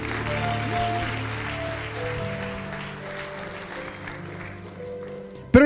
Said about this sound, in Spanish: Aleluya, de una ofrenda de palmas al Señor.